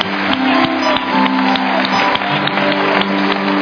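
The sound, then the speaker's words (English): An audience claps steadily for several seconds to applaud God's glory in worship, a dense, even patter of many hands over sustained low instrumental tones, with no voices speaking. “Go ahead and applaud His glory together.”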